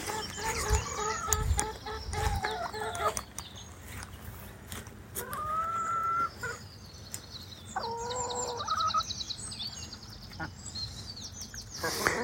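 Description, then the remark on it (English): Several of a flock of eight kept chickens cluck and murmur, short harmonic calls repeating in loose bursts over a steady outdoor background, with a few higher squawks scattered through. “The chickens are tremendous animals to keep.”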